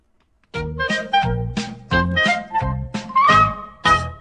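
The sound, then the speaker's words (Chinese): A cat meows repeatedly, about eight short, bright, harmonic mews in quick succession, one with a rising, squeaky pitch, loud and with no talking. “夕阳西下，我就往地上一趴，喵。”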